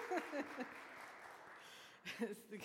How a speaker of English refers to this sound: We can clap for all those names. Yes, he did a very good job.